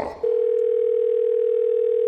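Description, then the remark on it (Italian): A steady telephone dial tone of an outgoing call to an electrician starts after a brief rustle and holds one unbroken pitch, loud, filling the rest of the moment with no voices. “Seconda telefonata all'elettricista.”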